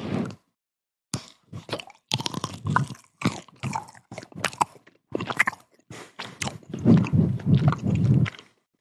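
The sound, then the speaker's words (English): Loud chewing of a chocolate ganache dessert with mini blueberry bits, with wet, crunchy bites and smacking mouth sounds repeating in an uneven rhythm for several seconds, growing busier toward the end, with no talking. “Those chewing sounds are very loud.”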